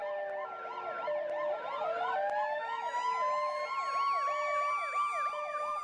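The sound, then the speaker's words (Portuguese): Several ambulance sirens wail and yelp at once during the quarantine period, their rising and falling tones overlapping in a dense, loud, continuous layer that fills the whole stretch with no voices. “Uma das trilhas desse período, infelizmente, é o som das ambulâncias pelo mundo.”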